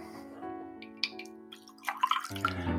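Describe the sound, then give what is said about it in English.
Hendrick's gin is poured into a glass with ice, a steady trickle with a ringing resonant tone, broken by a few splashy gurgles and clinks toward the end. “Some of this fabulous Hendrick's gin.”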